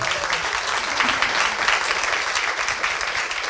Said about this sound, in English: everyone in the audience got a copy of your book. I just want to give a huge round of applause. The number one book in America, ladies and gentlemen.